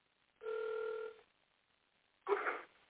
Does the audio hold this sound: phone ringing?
yes